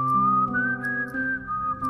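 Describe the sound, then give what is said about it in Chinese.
A sustained whistled melody with a clear, steady tone that glides slightly up and then back down, heard alone over a faint low hum, with a few soft clicks. “口哨 对，十级口哨选手”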